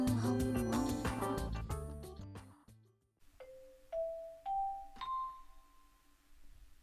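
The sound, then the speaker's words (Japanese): A short burst of busy piano music gives way to an announcement-style chime played on piano to introduce a breaking-news segment: four clear, bell-like notes rising step by step, each ringing out and fading, with no talking. “いつも臨時ニュースの時にはミンゴスのね怪しげなピンポンパンポンだったんですけれども今日はたまちゃんが素敵なピアノの音を演奏してくださいましてありがとうございます”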